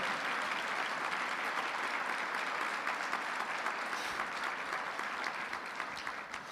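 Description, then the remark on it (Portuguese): Sustained audience applause for a text that has just been read, a dense steady patter of many hands clapping at an even loudness for several seconds, with no one speaking over it. “Eu acho que vale uma salva de palmas a esse texto, só pelo texto já, já vale o nosso dia.”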